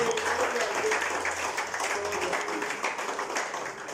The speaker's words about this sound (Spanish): Denle a Cristo el aplauso, por favor.